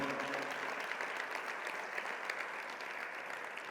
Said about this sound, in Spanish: Por lo que Él ha hecho en nosotros, vamos a honrarlo con un fuerte aplauso esta noche, de veras, con gratitud al Señor.